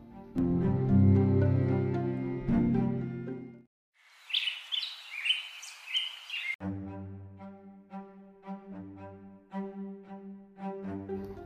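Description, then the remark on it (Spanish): A small bird chirps and trills rapidly for about three seconds, bright, set between stretches of mellow instrumental music that stops for the birdsong and then resumes. “El pueblo desierto a la plaza desierta baja de contra un pajarito y se corre la voz. Hay un pajarito en la plaza.”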